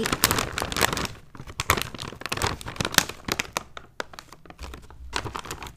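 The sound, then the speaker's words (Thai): Loud crinkling of a bag of Balaji potato chips, tomato twist flavor, with dense bursts of crackling plastic and a few sharper rips as it is torn open, with no talking. “ทีนี้มาถึงขนมกรุบกรอบถุงสุดท้าย”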